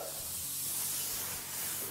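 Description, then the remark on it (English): A steady, hissing spray of water runs for about two seconds, bright and airy with little change in loudness, as water is sprayed to clean the area and wipe down walls before tiling a kitchen splashback. Nobody speaks. “First of all, you're going to clean the area wipe down our walls, just with water, get any dust residue, any plaster.”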